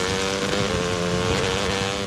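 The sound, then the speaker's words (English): A dirt bike engine drones loudly, its buzzing pitch wavering slightly as it revs steadily for a couple of seconds with no voices. “You wouldn't ride your dirt bike blindfolded.”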